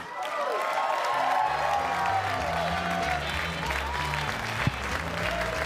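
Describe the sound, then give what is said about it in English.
A comedy show audience bursts into sustained applause with scattered cheers and whoops as the next stand-up comedian is introduced, a dense wash of clapping that stays loud and steady throughout, with a few voices rising above it. “Y'all can do better than that. Make some more noise.”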